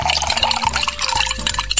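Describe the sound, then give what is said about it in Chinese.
Liquid being stirred in a pot with a trident: a steady, wet swishing and dripping texture with small splashy ticks, over a low sustained hum. No one speaks. “尼古拉继续用三叉戟在锅里搅拌。”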